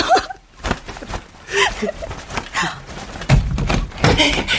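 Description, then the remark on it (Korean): A door bursts open without a knock as someone barges in, with a couple of heavy thumps, sudden and loud, while muffled voices murmur in the background. “아이씨, 뭐야, 야, 노크는 하고 들어와야지.”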